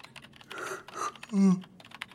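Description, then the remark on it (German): Rapid, uneven clicking of keys on a computer keyboard, fairly quiet, with a brief louder murmur-like sound partway through before the typing continues; a man hunched over his keyboard types in his study in Patterson, New York. “Er sitzt über seine Tastatur gebeugt, inmitten eines Durcheinanders aus Technik, Programmierbüchern und Videospielcontrollern.”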